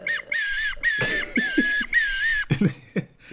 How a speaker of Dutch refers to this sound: nee, ik kan, ik kan niet nadoen op dit plastic fluitje.